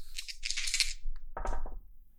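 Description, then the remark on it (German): Two six-sided dice rattle briskly in a cup or hand for about a second, then clatter and tumble across a hard surface in a quick burst of clicks before settling on a five and a three, totaling eight. They are rolled during a tabletop game. No one speaks. “Gut, damit wären wir eigentlich schon fertig und du darfst würfeln.”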